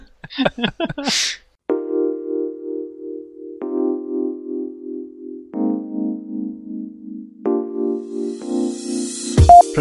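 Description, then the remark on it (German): A mobile phone rings with a melodic ringtone: steady electronic notes held about two seconds each, stepping between pitches, loud, right after a brief bit of voice. “da klingelt mein Handy, liebe Zuhörer, das passiert, wenn man auch mit in einer Moderation ist.”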